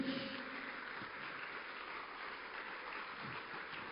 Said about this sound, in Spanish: Démosle un aplauso a nuestro Rey.